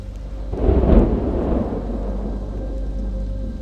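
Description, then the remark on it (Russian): A deep thunder clap bursts in around half a second, rumbling loudly before settling into a steady wash of rain and low rolling noise, during a thunderstorm on the road over a mountain pass into a valley. No voices are present. “Леденящие душу удары грома раздавались внезапно и звучали так величественно, словно где-то там, вдалеке, Тор роняет свой молот на каменную наковальню.”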